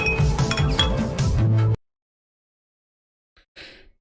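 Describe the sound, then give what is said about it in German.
Several glasses clink together in a toast, a lively burst of bright ringing taps lasting under two seconds, followed by silence and a brief faint sound near the end. “Auf euch, Leute. Prost. Prost. Auf euch.”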